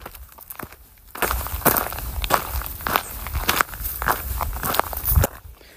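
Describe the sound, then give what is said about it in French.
A person's footsteps crunch along an outdoor path at a steady walking pace, a regular run of crisp, gritty steps that starts abruptly and stops after several seconds, with no talking. “Voilà, ça c'est mes pieds sur le chemin.”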